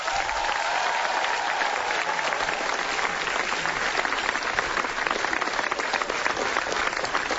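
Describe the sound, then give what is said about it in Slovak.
Sustained applause from the audience present in Skavina, a dense steady wash of many hands clapping at an even, loud level for the full length, with no one speaking over it. “Takže asi treba veľký potlesk.”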